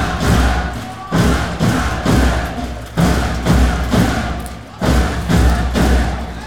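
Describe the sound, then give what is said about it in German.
A packed arena crowd chants "Dankersen" in a loud, steady rhythm, each repetition punctuated by heavy thumping beats roughly once a second. “Und schon ist die Halle da mit dem Dankersen Dankersen.”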